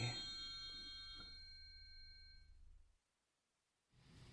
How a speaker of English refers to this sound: That's it? You just ring a bell in each corner of the house and say a bunch of stuff?